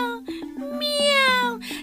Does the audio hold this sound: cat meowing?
yes